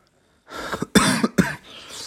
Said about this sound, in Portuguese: temos aqui com uma tosse.